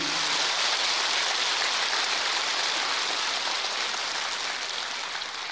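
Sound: audience applause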